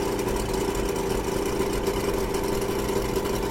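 A second-hand car's engine struggles to start on a winter day on the Koshu Kaido road, rumbling and straining at a steady, rough idle for a few seconds, a low uneven drone with a humming mid-pitched tone on top and no voices.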